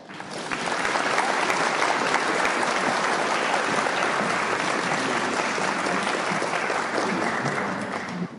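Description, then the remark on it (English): An audience welcomes a speaker with steady, sustained applause, dense clapping at a fairly loud level for several seconds before easing slightly at the end, with no talking over it. “So just help me give a warm welcome to Pat.”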